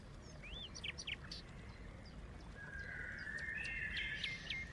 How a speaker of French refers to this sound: Vous entendez la petite source Samuel m'a trouvé un autre fond de, d'émission. Il y a les oiseaux et, tout, juste derrière, écoutez bien.